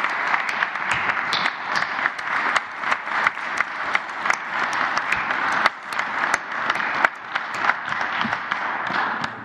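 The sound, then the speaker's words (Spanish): An audience applauds steadily throughout, a dense wash of many hands clapping with scattered sharper individual claps standing out, sustained at an even, fairly loud level with no talking. “Yo sí quiero este, ofrecerles rendirles eh, de nuevo mi reconocimiento y un aplauso.”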